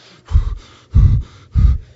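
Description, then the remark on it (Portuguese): Three forceful, angry huffs blown out through the nose, evenly spaced, each a short loud burst of breath with brief quiet between them. No talking. “A gente não bufa quando está com raiva?”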